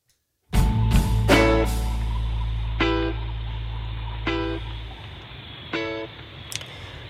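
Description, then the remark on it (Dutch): A car horn honks in short, bright blasts in the Sinalco parking lot, heard from inside an Opel, a quick pair and then single toots spaced a second or two apart, over a deep engine rumble that fades halfway through. “Nu zitten we in de auto”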